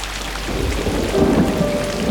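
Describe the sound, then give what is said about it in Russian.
Heavy rain pours down steadily with a deep, rolling rumble of thunder beneath it, a dense and continuous storm sound with no voices. “а святитель уже и сам понял, что пришла пора помолиться о прекращении дождя.”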